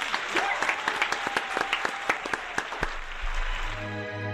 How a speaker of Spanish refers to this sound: Un aplauso. Gracias.